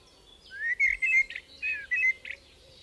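bird, eurasian blackbird song

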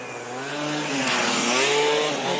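vehicle, motorcycle passing by

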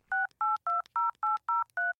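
signal or alarm, telephone keypad dialing tones

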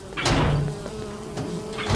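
insect, bees buzzing

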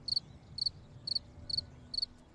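insect, cricket chirping

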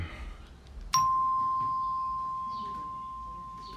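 household object, doorbell ringing

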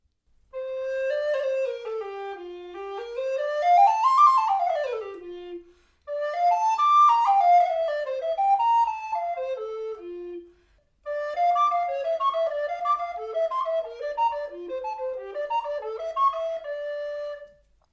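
flute played

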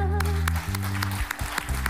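crowd, audience applauding

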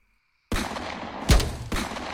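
sound effect, gunshots

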